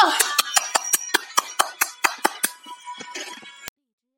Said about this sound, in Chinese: 掌声有请。